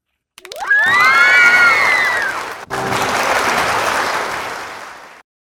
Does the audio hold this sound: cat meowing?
no